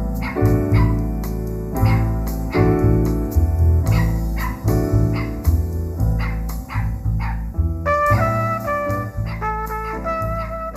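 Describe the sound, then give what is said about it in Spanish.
A dog barks over and over in short, loud bursts, roughly once a second, above a steady tonal backdrop. Nobody speaks. “Este no es Fufi. Este es otro perro.”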